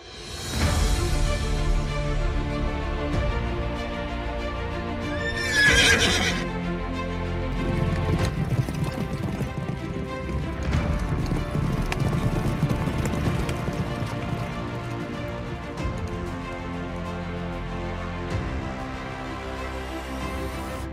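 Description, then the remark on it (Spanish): Horse hooves gallop in a steady, rapid clip-clop rhythm, fairly loud, as a rider travels on horseback, running continuously over a busy background with a brief brighter burst partway through. “Después de cabalgar por dos días, llegó al bosque encantado”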